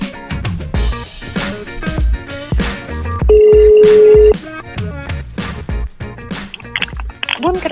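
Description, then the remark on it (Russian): A rapid run of telephone keypad tones dialing an extension number after a company's automated phone greeting, short beeps in quick succession, broken by one longer steady tone lasting about a second, heard clearly over a phone line with no talking. “Вы можете набрать внутренний номер абонента и дождитесь ответа оператора.”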